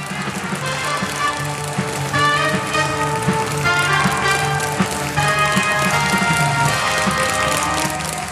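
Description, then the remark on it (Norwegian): A circus audience applauds steadily during an elephant act under blue spotlights, a dense crackle of clapping with children in the audience cheering and shouting in bursts, loud throughout. “Hun balanserer på to bein, setter seg på krakken og hiver snabelen i været, Adriana gir henne kyss og små godbiter, mens barna i publikum jubler.”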